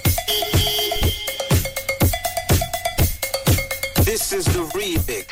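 Upbeat disco-pop dance remix with a steady thumping kick drum, bright cowbell-like synth stabs and a bouncy riff, playing loud and close with no voices.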